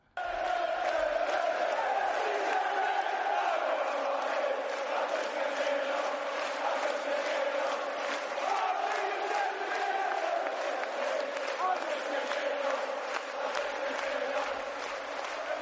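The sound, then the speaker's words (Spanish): A large crowd of Celtic Glasgow football fans sings the club's well-known chant in unison, a loud, steady mass of voices holding a repeating melody for the whole stretch with rhythmic pulses. “Y lo, cómo canta la canción del Celtic de Glasgow, una canción muy conocida”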